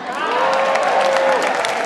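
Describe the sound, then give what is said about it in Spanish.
A crowd applauds loudly and steadily, dense clapping filling the whole moment, with a faint sustained tone and some cheering voices mixed into the ovation. “Déjame decirte que los chilenos te han aplaudido y es el termómetro de que les gustó lo que dijiste.”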